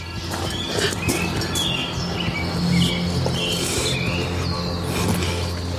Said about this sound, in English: now hold on birds. one second. Yeah, why are the birds chirping sure, in the middle like, of the night? Yeah. yeah, this is clearly horseshit. I don't know any birds that chirp like that in the no, middle of the night.